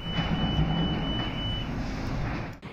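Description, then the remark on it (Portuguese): Steady, continuous rumble of heavy machinery running without pause at the site of a collapsed shopping centre, dense low-frequency engine drone with a thin high whine, constant throughout, no voices. “No ar, muita poeira e cheiro de queimado e o som de máquinas funcionando sem parar.”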